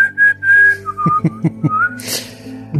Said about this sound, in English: Loudly whistling.